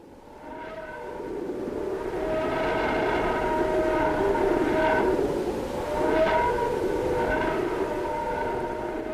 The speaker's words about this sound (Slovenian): Po 17 mesecih od izstrelitve in treh orbitah okrog Sonca je podatke, ki so zaobjeti v tej sonifikaciji, posnela vesoljska sonda Parker